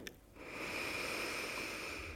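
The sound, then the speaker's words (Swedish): A long, deep breath drawn in through the nose, with a slight whistling hiss that holds steady for about two seconds. No one speaks. “Och andas in lite djupare.”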